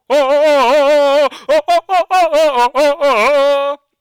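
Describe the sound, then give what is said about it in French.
A video game merchant's voice murmurs a string of sing-song, gibberish-like syllables, one long drawn-out sound followed by quick choppy bursts, fairly loud, with no other talk, heard in the background as the player approaches the merchant. “et donc pour ce que je disais en fait tout simplement quand on s'approche du marchand, on va l'entendre en fond.”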